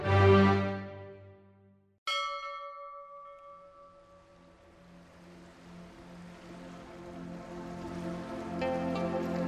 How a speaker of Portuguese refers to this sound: Se você ouviu o primeiro episódio, já conhece o barulho desse sininho.